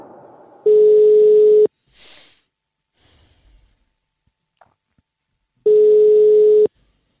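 A telephone ringback tone of an outgoing call made by the Radio 4 programme Vildspor: two long, steady, loud tone bursts about a second each, separated by a pause with faint breathing and small rustles.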